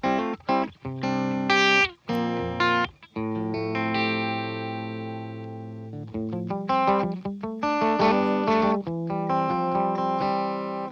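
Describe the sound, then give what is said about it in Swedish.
A looped clean electric guitar phrase run through an effects unit on channel 2, the clean channel. It has choppy strummed chords, a long shimmering sustained chord in the middle, then bright repeated chord stabs, steady and moderately loud. “Men eh, loopen låter också jättebra tycker jag.”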